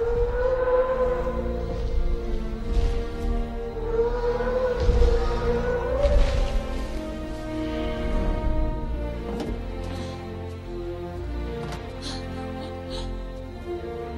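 Deep, drawn-out moaning calls of the brachiosaurus in the film Jurassic Park rise and fall in long wavering tones, like whale song, layered over a dense low rumble that fills the whole stretch at steady loudness, with no talking.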